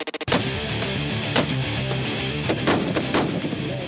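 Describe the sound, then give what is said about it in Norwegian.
A long series of shots from an extremely powerful rifle, fired by one man in quick succession, each blast loud and sharp with a booming echo, over several seconds with no voices. “her hører vi han fyre av en lang serie skudd med en ekstremt kraftig rifle.”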